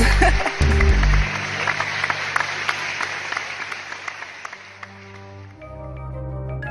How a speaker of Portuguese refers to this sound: Um o sol está se pondo, a gente vai tá bater palmas e etc.